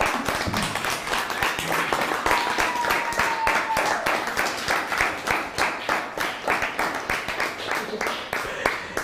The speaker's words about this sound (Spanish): Y a todos, un fuerte aplauso, un fuerte aplauso.